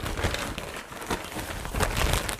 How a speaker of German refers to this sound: Habe ich auch im Radio gelernt. Na, ans Mikro dann so ranhalten und rascheln.